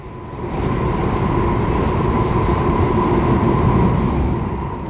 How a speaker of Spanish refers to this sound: Estás de suerte, aquí viene uno. ¿Te acuerdas de las vías del metro? Pues me despido dejándote oír cómo las hace tronar el paso de los trenes.